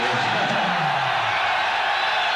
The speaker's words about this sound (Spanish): Una forma para bajar un poquito sin bajar nada es que todo el mundo gritemos, que saquemos de dentro el rollo. Y así podemos saber cuántas miles de personas hay aquí esta noche.